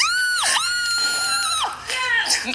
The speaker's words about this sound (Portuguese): A mina, ela grita e pula porque o cara não é pai. A, a, a juíza fala: Senhor, você não é o pai. Ela grita e pula.